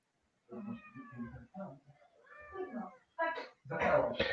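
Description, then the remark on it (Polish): A foster cat, not yet named and awaiting adoption, meows several times in quick succession, fairly loud, with drawn-out, wavering cries that grow more insistent toward the end. “Proszę za to, że ktoś z Was ma kota. Tak. Cześć kocie.”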